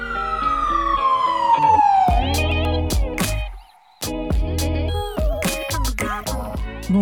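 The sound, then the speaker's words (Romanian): A loud ambulance siren wails downward in one long sweep, then gives way to a busy burst of clattering, tonal sounds with a brief near-silent gap. No one speaks. “Și aflăm ce cu ambulanța aia.”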